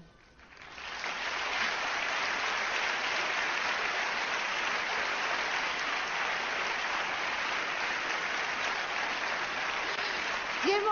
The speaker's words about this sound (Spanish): bonita ovación, don Enrique.